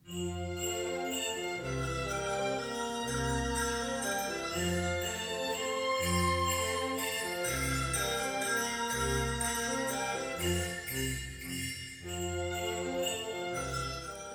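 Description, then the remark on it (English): Tuned sleigh bells ring through a full orchestral passage played by the Capella Istropolitana conducted by Johannes Wildner, a steady bright jingling of pitched bells woven into sustained, loud music with a repeating low pulse and no voices. “They're definitely tuned, tuned bells.”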